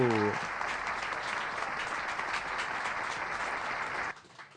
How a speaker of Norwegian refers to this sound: Ja, en stor applaus til eh, denne artisten.